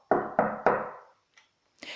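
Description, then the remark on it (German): Three heavy, resonant knocks on a heavy wooden gate, evenly spaced, the last one ringing out longer, followed by a faint creak-like sound and a short rustle. “Ich klopf mal an das schwere Holztor.”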